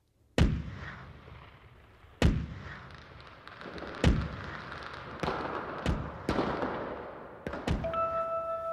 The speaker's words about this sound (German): Deshalb 101 Kanonenschüsse für alle.